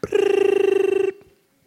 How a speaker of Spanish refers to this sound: Ella me está agotando porque voy al baño y suena el celular